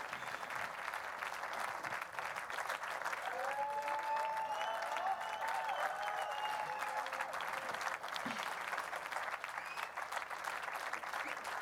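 Steady applause at the end of a multi-hour performance, performers and spectators clapping for each other, filling the whole clip as a dense wash of clapping hands at an even level, with faint whistles or cheers rising briefly above it midway.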